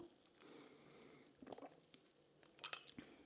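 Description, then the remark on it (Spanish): A quiet sip of iced cold brew coffee with lime, a soft slurp followed by a few faint, bright clinks like ice shifting in the glass. No one speaks. “mientras le doy un sorbo a mi cold brew.”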